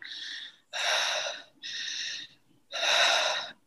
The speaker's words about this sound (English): So I would do 10 minutes of just breathing with my jaws really relaxed and just through the mouth.